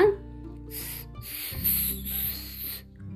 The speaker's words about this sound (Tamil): கீழே ஒரு பாம்பு இருந்ததான் இதான் ஆண் கிளி பார்த்துருச்சு